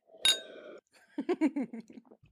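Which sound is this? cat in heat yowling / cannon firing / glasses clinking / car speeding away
glasses clinking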